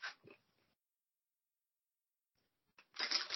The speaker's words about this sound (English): Whoa. Who's rustling? Who's eating crisps? Sorry.